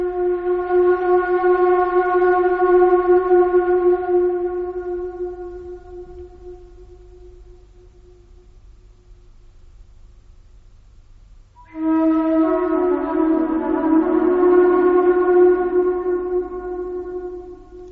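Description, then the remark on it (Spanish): A flute improvises long, steady held notes inside the Great Pyramid, each ringing into a lingering echo off its millennia-old walls; after a quiet fading gap, a loud second phrase enters, wavering between two close pitches. “en el eco de la flauta rebotando sobre estas paredes milenarias?”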